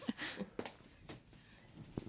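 Footsteps walking across a room, a handful of soft, uneven thuds spaced out over a couple of seconds, fairly quiet and slightly distant, with no talking.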